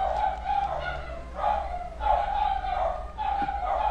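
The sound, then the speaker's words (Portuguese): Dogs bark in a repeated, excited series of yelps as someone arrives, one burst after another with barely a pause, over a low steady background hum. “que chegou alguém aqui. E aí os meus cachorros ficam loucos aqui.”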